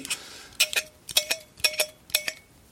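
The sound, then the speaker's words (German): A corkscrew twists into a wine cork with squeaky creaks that come in quick pairs, repeating four times at a steady rhythm with no talking. “Äh, ich wollte ja nur den Hörern die Gelegenheit geben, jetzt einfach dieses wunderschöne Geräusch, sich, des sich in den Korken arbeitenden Korkenziehers zu genießen.”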